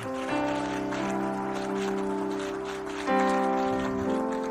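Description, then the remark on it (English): Steady audience applause, a dense patter of many hands clapping for several seconds, with sustained organ-like chords playing underneath; no one speaks. “and honey, that's applause for you marriage, home, children, family.”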